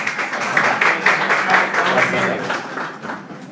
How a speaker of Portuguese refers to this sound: Muito bem, palmas para ele.